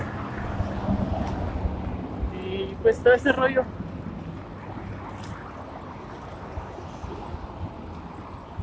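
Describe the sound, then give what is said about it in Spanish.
Steady low wind rumble buffets the microphone throughout while riding a bicycle, a constant blustery roar with a few brief clattering bursts, and a man talks over it. “Y ahorita vengo en mi bicicleta grabando esto.”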